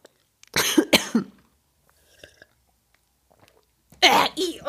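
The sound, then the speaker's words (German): Loud, noisy slurping bursts from a drink taken from a glass, one early and another near the end, with a few faint gulping swallows in the quiet stretch between them. “nimm mal bitte einen Schluck aus deinem Glas.”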